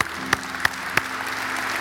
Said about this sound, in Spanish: Dice la Biblia que hay una fiesta en el cielo, así que estamos contentos familia, vamos a darle un aplauso otra vez a Dios